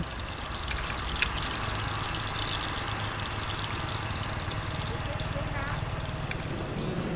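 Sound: sea waves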